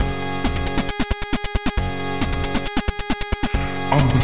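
An 8-bit chiptune remix of a techno song plays loud: buzzy square-wave tones hammering out rapid, stuttering rhythmic pulses in a repeating pattern, with no voices.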